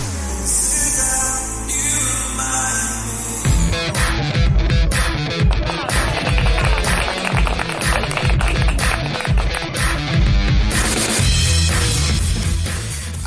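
An alternative rock song played on Now Music Radio, broadcasting from Mexico City, plays loud and full: sustained, droning chords open it, then drums and band kick in with a steady driving beat that continues to the end. No voices talk over it.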